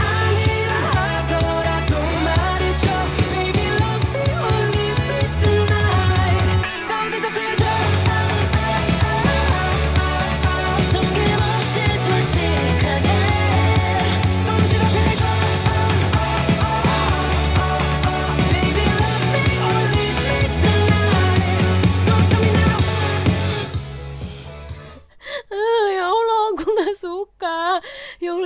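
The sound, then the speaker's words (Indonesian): An upbeat pop track with a steady, driving beat and bright, busy instrumentation plays loud and continuous, like aerobics workout music, before cutting out near the end as a voice briefly takes over. “kayak lagu senam sumpah gue tiap hari Jumat kebangun sama lagu yang modelan kayak gini jadi tuh di sekitar kantor sekitar gue tuh tiap Jumat senam terus model lagunya tuh kayak gini”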